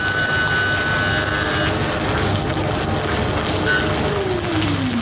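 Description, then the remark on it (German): Loud, steady sizzling of food being seared main side down in a hot pan, a dense crackling hiss that fills the whole clip without pause, with a faint hum underneath and no voices. “Also das kommt jetzt mit der Hauptseite nach mit unten Mit der Hauptseite rein. tun wir es anbraten.”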